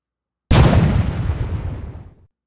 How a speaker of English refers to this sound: The cannon fired again. The French answered. A cannonball passed so close by my face that I felt the breeze.